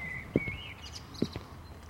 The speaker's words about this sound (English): Try to walk to the sound of my footsteps so that we can stay together.